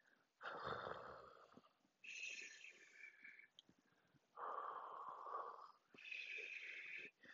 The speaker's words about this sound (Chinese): 哦天哪！彩色怪兽会打呼哎。